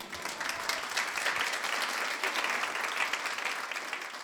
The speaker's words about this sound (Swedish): Vi tycker, att vi ger dem en applåd. Ja, det gör vi.